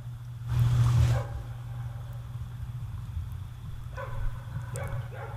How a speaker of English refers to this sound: I'll listen for the dog barking.